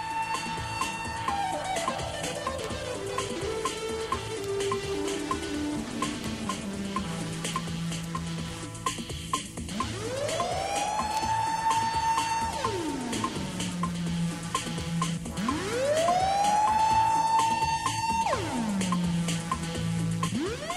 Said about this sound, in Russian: Первая вещичка, исполненная на Мук-синтезаторе и пробившаяся в хит-парады, это пьеса … …, джазового музыканта